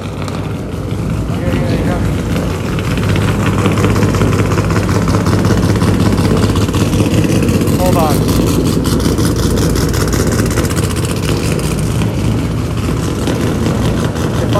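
A man revs a car engine, its loud, rough drone climbing in the first few seconds and then holding steady and throaty for the rest of the stretch.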